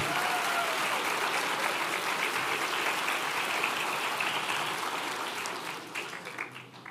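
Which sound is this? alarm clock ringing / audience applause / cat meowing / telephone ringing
audience applause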